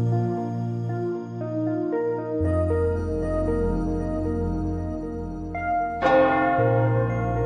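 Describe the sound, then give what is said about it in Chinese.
During a guided meditation, a meditation bell is struck once more near the end, its bright ringing tone decaying slowly over a bed of sustained, humming musical drones. No one speaks. “钟声再次的响起，以下二十秒之内，便是你要尝试放宽胸怀、毫不忍耐的时刻。”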